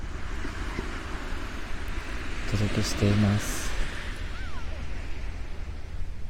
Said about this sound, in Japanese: 今ですね、えー、神奈川県の海辺からお届けしています。えっと、波の音が聞こえてると思うんですが、もう本当に海のすぐそばから